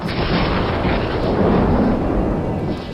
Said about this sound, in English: And when the thunderstorm came and the lightning struck, he was shocked into thinking, what am I going to do before God? If that lightning bolt had hit him, I think he wondered what was going to happen to him.